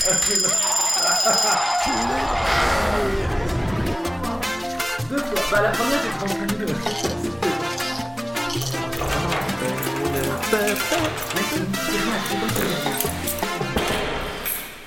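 An alarm clock rings loudly and continuously for the whole stretch, a rapid, repetitive electronic clatter that sounds insistent, with a bright, high-pitched ringing tone at the start.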